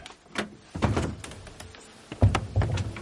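A trapdoor is pushed open with a couple of dull wooden thunks and clatters, a first burst of knocking followed by a second, heavier thud and rattle about a second later.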